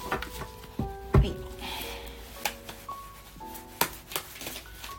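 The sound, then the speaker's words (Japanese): Tarot cards being shuffled for a tarot reading, a soft papery riffling and rubbing with irregular light taps and slaps, a few sharper card knocks standing out, with faint tonal hum in the background and no talking. “今カードシャッフルしてるのでお待ちくださいね”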